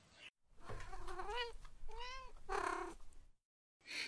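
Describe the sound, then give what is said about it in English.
A zoomy cat getting into plastic bags meows three times in quick succession, each call drawn out and wavering in pitch, fairly loud with no one talking. “I, I have a zoomy cat that's getting into some plastic bags.”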